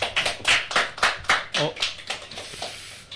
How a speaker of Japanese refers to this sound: はい、拍手新鮮だね。拍手新鮮ですね。人様が書いたね、作品の話をして、拍手いただくの。恐縮感があるが。